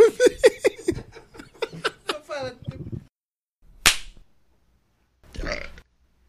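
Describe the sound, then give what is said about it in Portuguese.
A long, gurgling burp rumbles for a few seconds, then a single sharp clapperboard clap snaps out loudly, followed by a brief breathy noise. “Vai ficar bonito, é uma claquete com arroto no começo.”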